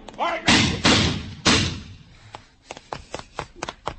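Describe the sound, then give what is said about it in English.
A person is knocked down by a car driving without lights: a brief shout, then three heavy thuds in quick succession, then a scatter of lighter knocks and clatter as things settle. “Just knocked me down.”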